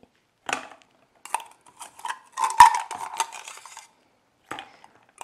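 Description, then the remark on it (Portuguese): Ice cubes drop into a glass of wine for a drink, one after another, each landing as a bright, sharp clink, with a busier burst of rattling knocks in the middle and a few lone clinks at the end, no voices. “Não pode faltar o gelo, né? aqui umas pedrinhas de gelo.”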